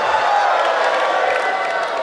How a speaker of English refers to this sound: Come on, make some noise, crunch bar. Come on, scream, shout, cheer.